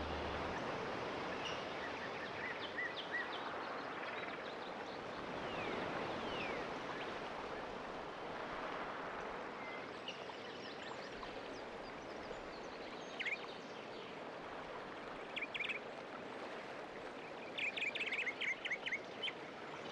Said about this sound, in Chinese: 现在，你听着这个舒服的海浪声，将你的身体移动到最舒服的姿势。